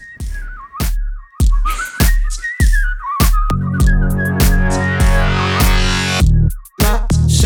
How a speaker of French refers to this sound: Les sifflements que vous allez entendre n'ont pas été réalisés par un instrument,